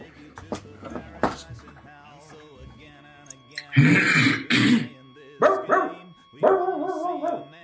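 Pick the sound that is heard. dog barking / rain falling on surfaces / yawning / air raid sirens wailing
dog barking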